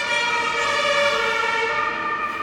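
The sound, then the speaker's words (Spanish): An ambulance siren wails steadily and fairly loud, its pitch slowly sinking as the vehicle passes by, with no voices over it. “Bien, ahora que ha pasado la ambulancia podemos seguir.”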